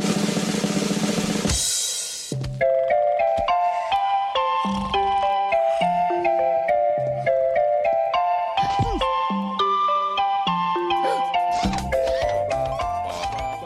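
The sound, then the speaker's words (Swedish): A bouncy, playful cartoon theme tune with bright toy-like synth melody and plinky rhythmic accompaniment, loud, preceded by a brief burst of noisy static at the start. “Du känner igen det va? Nej. Gör inte det? Rugrats!”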